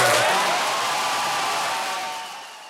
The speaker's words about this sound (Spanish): Los aplausos duran más de un minuto y enseguida se empieza a escuchar esto.